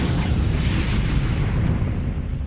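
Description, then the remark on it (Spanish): A loud explosion roar as a spacecraft's service module bursts and gases vent uncontrollably into space: a dense, rumbling blast of noise that holds steady for the whole couple of seconds without fading, with no voices. “La explosión había reventado el módulo de servicio y los gases salían descontroladamente al espacio.”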